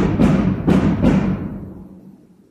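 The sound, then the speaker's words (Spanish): Three firecracker explosions go off in quick succession outdoors in a neighborhood, each a sharp boom followed by a rumbling echo that fades away slowly. No one speaks. “Suspenso, detenido por, por los cohetes.”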